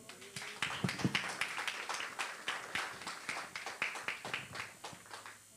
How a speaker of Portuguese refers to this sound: Amém. Aplauda ao Senhor.